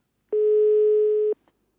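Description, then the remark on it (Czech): A single steady telephone line tone at the start of a phone call sounds loud and clear for about a second, then cuts off abruptly, followed by a faint click and silence. “A ten druhý telefonát byla žádost o rozhovor.”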